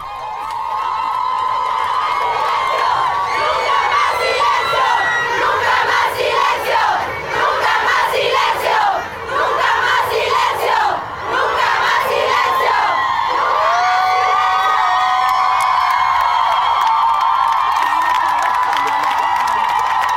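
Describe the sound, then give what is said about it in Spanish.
A large crowd of women chanting and shouting together at a march, loud and continuous, with rhythmic bursts of voices rising and falling throughout. “Para mí eso es también lo más esperanzador que nunca antes hubo tantas mujeres unidas bajo el mismo grito.”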